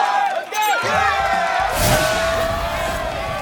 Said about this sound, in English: All right, everybody, you heard it. It is the final buzzer. We are getting ready to round up the show.